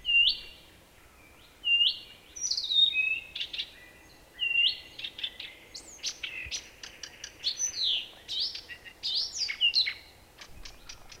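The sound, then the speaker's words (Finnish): A marsh warbler sings from a rose bush beside large lilacs in a yard in southeastern Finland, a fast, varied stream of chirps, whistles and buzzy trills, fairly loud, with brief pauses between phrases and no voices. “Parhaana kesänä tässä pihalla aivan vierekkäin on laulanut neljä viitakertusta.”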